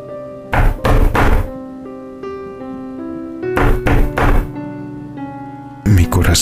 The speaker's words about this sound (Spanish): Primero se escucharon muy levemente, por lo que pensé que había, habría podido haber sido el viento. Sin embargo, el sonido se repitió, pero esta vez con mayor fuerza sobre la madera de la puerta que yacía cerrada a unos pocos metros de mí.